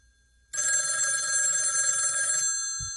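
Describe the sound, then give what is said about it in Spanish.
A loud, shrill telephone bell rings continuously for about two seconds after a brief quiet start, its metallic jangle sustained, then cutting off abruptly. “¿Es que nadie va a responder al teléfono?”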